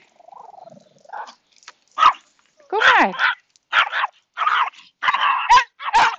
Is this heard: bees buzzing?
no